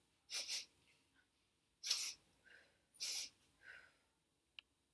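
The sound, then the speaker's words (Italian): A person sniffs the air like a wolf: three loud, sharp sniffs, spaced about a second and a half apart, each followed by a faint whistly exhale, made deliberately with no talking. “Come un lupo, l'annusavo so che sto provando questo.”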